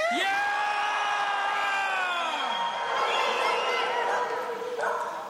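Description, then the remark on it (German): After a count of one, two, three, a crowd bursts into loud celebratory cheering and whooping, high voices rising and holding long shouted notes that slide down, with a dense wash of yelling that continues steadily to the end. “Das letzte Mal der grosse Jubel heute.”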